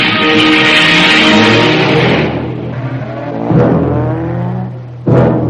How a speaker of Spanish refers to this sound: Creyendo que Roger es un pacífico transeúnte alemán, suben al coche y se marchan.